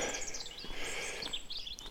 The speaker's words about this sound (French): Mon préféré, que tu dis souvent le matin, les oiseaux gazouillent. Et c'est vrai que là aussi ils gazouillent. Et c'est plus le matin.